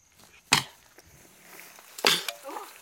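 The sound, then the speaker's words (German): A cheetah gives two sharp, explosive hissing bursts about a second and a half apart, like air suddenly forced out, with faint clicking and quiet background noise between them. “Im Gegensatz zu Löwen können Geparde nicht brüllen. Sie können nur fauchen oder ebenso schnalzen, wie sie es gerade bei uns tun.”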